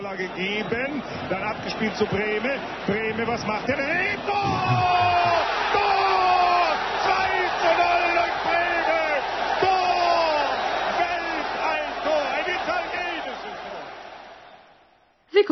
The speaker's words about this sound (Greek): Γνωρίζετε επίσης, που διεξάγεται, ότι προφανώς οι θεατές φώναξαν γκολ και ότι ο ενθουσιασμός του πλήθους είναι η αντίδραση στον γκολ που έβαλε η μία από τις αντίπαλες ομάδες.